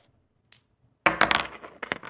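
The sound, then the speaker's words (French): Dice rolled onto a hard surface to continue a game: a single light click, then a burst of rattling clatter with several sharp, bright taps tumbling together before settling. No one speaks. “Donc, euh, je lance les dés, on continue la partie.”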